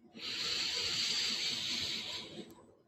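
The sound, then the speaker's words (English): One long, deep inhale: a steady, airy hiss that swells in quickly, holds for about two seconds, then tapers off. No one speaks. It is a deep breath taken at the end of a guided breathing practice. “And let us finish this practice with three deep breaths together. Breathing in”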